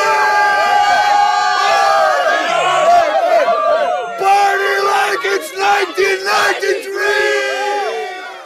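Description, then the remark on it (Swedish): A lively party crowd cheers and whoops continuously at a party that is getting going, many overlapping voices shouting and hollering at high energy, with a few brief dips before the noise swells again. “Festen kommer igång. Efter någon timme börjar någon dansa, det blir lite stimmigare.”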